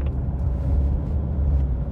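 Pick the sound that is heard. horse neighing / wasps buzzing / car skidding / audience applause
car skidding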